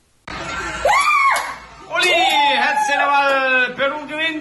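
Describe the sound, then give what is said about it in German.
Loud, excited cheering with high, sliding shouts and whoops, a brief lull near the start, then a sustained burst of jubilant voices that swells and wavers until the end, as people in Lima, Peru celebrate Peru's 2–0 football win over Paraguay that secured a playoff place. “Und der Jubel war groß.”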